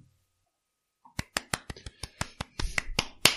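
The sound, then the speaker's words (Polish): A short burst of hand clapping, about a dozen sharp, crisp claps in a quick, slightly uneven rhythm that grows busier toward the end, with no voices. “Dobra, oklaski też mogą być.”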